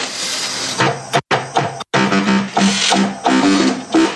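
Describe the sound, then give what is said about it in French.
A loud, harsh Korg synthesizer sound with gritty, creaking tones that grind and wobble like an old chair, broken by two short silent gaps, played alone without any talking. “Eh, ça fait rêver, non C'est une chaise qui grasse, grince, c'est ça hein”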